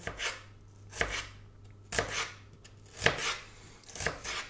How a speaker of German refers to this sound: Von oben in Striche und dann quer dazu dann die kleinen Würfelchen runterschneiden. So. Easy, wa? So, und schon haben wir eine halbe Zwiebel klein gemacht.